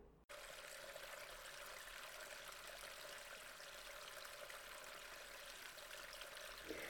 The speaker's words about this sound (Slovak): Keď boli asi v polovici celej trasy, zahrmelo. Oblohu preťali blesky a strhol sa prudký lejak.